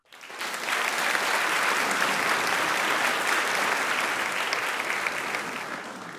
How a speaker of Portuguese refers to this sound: Como é para a gente fazer um teatro? Vamos fazer 3, 2, 1, aí você Faz um aplauso, conta. um aplauso e uma risada para encerrar.